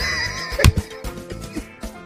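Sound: donkey braying sound effect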